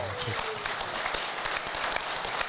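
An audience gives a guest a big round of applause, steady and dense, with overlapping claps forming a continuous bright rustle and sharper individual hand strikes scattered throughout, holding an even loudness for the whole stretch.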